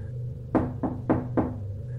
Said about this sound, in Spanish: todos los viernes a las 10 de la noche, alguien tocaba a la puerta.